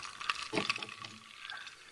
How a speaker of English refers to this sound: This is is that um, you is that you guzzling alcohol? I do. I have uh, I have some apple vodka with just Ooh. a splash of lemonade, which is rather yeah.